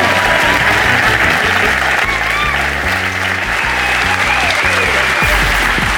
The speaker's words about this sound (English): So will you please give it up for my fantastic first guest, Rob Delaney?